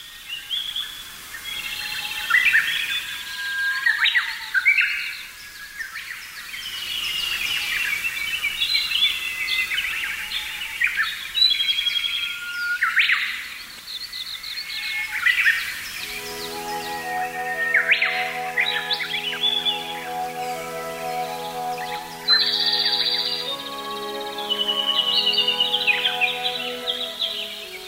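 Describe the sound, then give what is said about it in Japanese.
A dense woodland bird chorus recorded in 1998 on the Kirifuri Highland: many birds chirp, trill and whistle over one another without pause, with a lower, steady tonal call joining in during the second half. No voices. “今朝は25年前1998年の霧降高原のコーラスをお送りしました収録構成は松田道夫さんでした”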